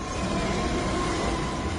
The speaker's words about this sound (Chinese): 你我都能搭上这列轰隆隆的蒸汽火车，朝着西北方向飞驰